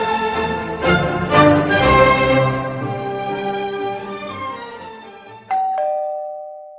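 A doorbell chimes several times in quick succession, its bright tones ringing out and slowly fading, followed by one last clear, sustained chime near the end. No voices.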